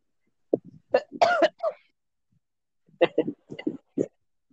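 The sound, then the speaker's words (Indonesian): A person coughs and clears their throat: a harsh burst of several coughs, a short pause, then a quicker run of smaller coughs and throat-clearing sounds. “kan batuk gimana sih mau pogging batuk.”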